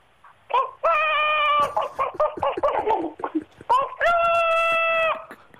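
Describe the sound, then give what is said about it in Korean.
A person vocally imitates a chicken, the last in a series of animal imitations, starting with a long drawn-out crowing call, then a rapid run of choppy clucks, and ending on another sustained crow-like squawk, loud. “네, 마지막으로 닭 아, 아.”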